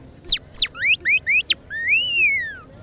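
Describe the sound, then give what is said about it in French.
Birdsong imitated by blowing a wetted mouth reed pressed against the palate: six quick, shrill downward-swooping chirps, then one long whistle that rises and slowly falls, clear and fairly loud over a faint low hum. “Après, il faut coller contre à parler et souffler comme un serpent.”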